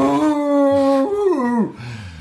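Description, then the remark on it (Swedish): A person imitates a dog's howl, mimicking how their dog Django, just over ten years old, howls when he sees another dog while in the car or on a leash; a long rising-and-falling wail slides upward, then drops away into a whimpering tail; loud, with no other speech. “därför att Django har ju, som sagt, när han är i bil eller när man har honom i koppel, min hund alltså det uppstår en situation med när han ser en annan mm. hund eller vad fan det är.”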